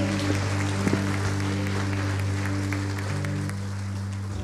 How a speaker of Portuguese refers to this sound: Aplauda o Senhor Jesus, porque o teu milagre já está chegando.